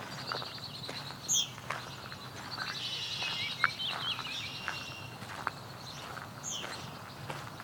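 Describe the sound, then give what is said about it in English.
A blackbird gives a few brief, high calls, scattered across a quiet outdoor scene with soft footsteps or rustling and a low hum of insects. “blackbird?”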